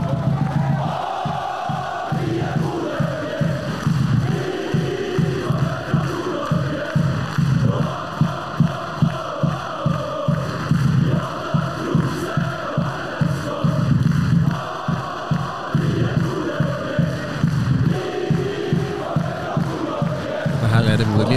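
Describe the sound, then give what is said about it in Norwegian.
A large crowd of football fans sings a chant together, loud and sustained, with a steady rhythmic pulse of stressed beats running through the whole stretch. “Og det er jo en sang eh, og eh, en stemning som bare har spredd seg for alle”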